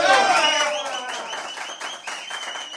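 Applause with dense, steady clapping that starts loud and eases slightly, mixed with high tonal whistling or cheering-like sounds that glide downward at the start.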